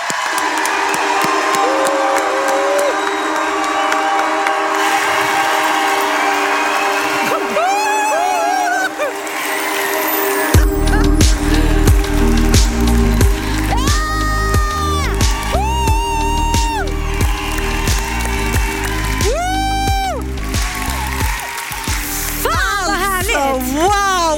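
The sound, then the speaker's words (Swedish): A live audience in Stockholm applauds and cheers loudly as the hosts arrive, with high whoops and shrieks rising above the clapping; partway through, a pounding music beat kicks in beneath the crowd noise. “Ge dem en varm applåd!”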